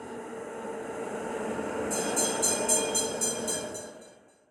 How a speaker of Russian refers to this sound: Черт, кажется, я пропустил свой трамвай.